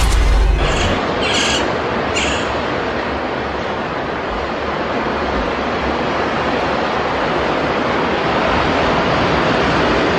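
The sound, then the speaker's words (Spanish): Ocean waves break on a beach in a loud, steady roar of surf, opening with a heavy low thump and churning on without pause. No voices are present. “Ah, sonidos de playa, sonidos de mar, porque nuestra historia sonora de hoy tiene que ver con eso,”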